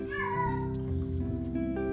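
A cat meows in a drawn-out, wavering cry, sliding downward in pitch over about two seconds, heard alone and fairly close with a steady tonal hum underneath.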